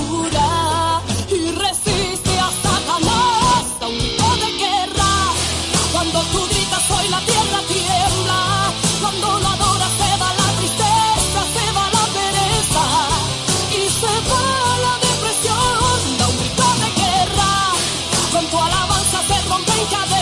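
A Christian worship song plays loudly and continuously, with a full band driving a steady beat under layered melodic parts, filling the whole stretch without pauses or spoken talk.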